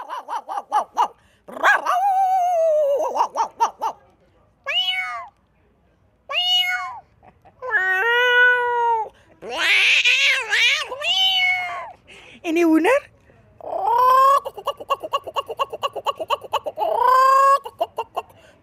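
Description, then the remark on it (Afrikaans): A person vocally imitates animals, first a dog, then a cat: a run of dog-like barks and yelps, followed by drawn-out, wavering cat meows, delivered loudly with short pauses between calls. “Die eerste een was die hond gewees en dan is dit die kat.”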